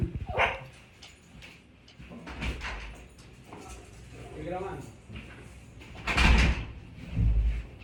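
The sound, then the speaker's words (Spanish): A dog barks in a few scattered bursts as its owner arrives, alongside a door opening and moving, with muffled voices in the background and some whimpering between the louder barks. “Que llegó, la madre del perro, espérate.”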